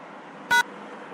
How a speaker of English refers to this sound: All right, one beep for yes, two beeps for no. You remember that shit? She'll beep once.